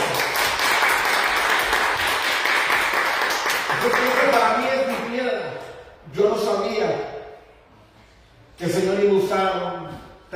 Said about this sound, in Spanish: Ahora doy un aplauso al Señor por todos